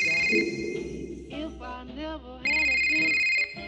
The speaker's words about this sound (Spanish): En ese momento, timbró el teléfono del esposo, quien hizo caso omiso.